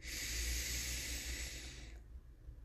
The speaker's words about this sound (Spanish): Y sigo respirando conscientemente. Ahora inhalo un poco más profundamente